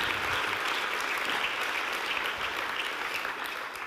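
An audience applauds steadily, a dense wash of many hands clapping at an even, sustained level for the whole stretch, fading slightly at the end.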